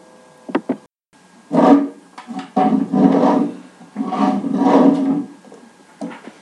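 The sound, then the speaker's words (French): A chair is dragged and shifted across a classroom floor in several loud scraping pushes, with a few short wooden knocks before and after. No one speaks. “Facile, c'est une chaise qu'on déplace.”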